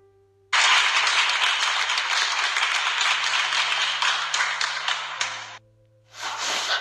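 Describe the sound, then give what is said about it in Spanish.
An audience bursts into loud, sustained applause as the speaker's brother is introduced to share his experience: a dense wash of many hands clapping that runs for several seconds, breaks off briefly, then returns in a shorter burst. “Así que vamos a empezar con con mi hermano y fuertes aplausos, por favor.”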